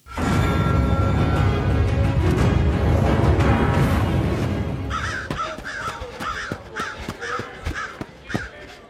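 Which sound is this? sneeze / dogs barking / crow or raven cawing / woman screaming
crow or raven cawing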